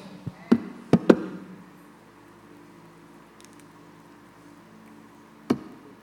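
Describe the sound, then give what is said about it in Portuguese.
Opening a water bottle: a quick cluster of sharp plastic clicks and taps, then a stretch of near silence with a faint low hum, and one last crisp click near the end. “Essa água aqui é minha, eu posso abrir ela?”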